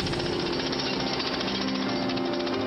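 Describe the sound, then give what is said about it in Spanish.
Three men chipping hard stone in a quarry at a small village on the Camino de Santiago: loud, continuous rapid-fire hammering with a harsh metallic buzz, steady throughout and with no voices. “Mientras comía algo, observó a tres hombres realizando una ardua tarea en la cantera.”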